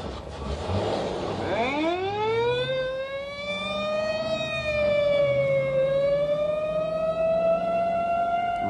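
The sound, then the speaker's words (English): A police squad car siren wails loudly, climbing sharply at first and then holding a long, slowly wavering tone, with faint engine rumble underneath and no voices. “Or in a screaming squad car.”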